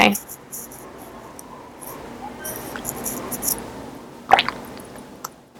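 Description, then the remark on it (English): Someone takes a quiet sip of rosé wine: soft, wet slurping and mouth sounds, then a sharp little click near the end. “Hang on, let me take a little sip of rose.”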